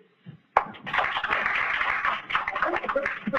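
A sudden burst of clapping from the members of a class born after 1982, many hands at once, holding steady at a fairly loud level for about three seconds, with faint voices mixed in.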